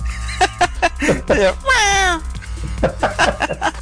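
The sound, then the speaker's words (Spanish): A cat lets out one clear, drawn-out meow that falls in pitch, loud, with people talking just before and after it, recorded outdoors in the monte (scrubland/countryside). “un gato por ahí.”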